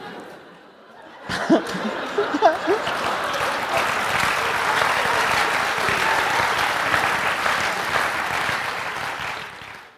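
A live audience breaks into sustained applause after a sudden start, dense clapping continuing steadily to the end, with some laughter and whoops mixed in near the beginning.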